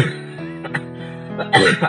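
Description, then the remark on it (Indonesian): A person coughs, a short throaty burst after a brief voiced sound, followed by a stronger, breathy cough near the end. No speech is heard. “ini juga aku lagi batuk ya”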